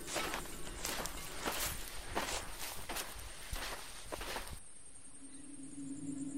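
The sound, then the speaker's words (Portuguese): A group of several people walks at an unhurried pace toward a cave entrance, not running, their footsteps crunching in a steady, overlapping patter for a few seconds before stopping, leaving a quiet, faintly humming stillness. No one speaks. “Bem, o grupo vai se aproximando da caverna, fazendo algum barulho, não muito, porque também não estão correndo, nada do gênero.”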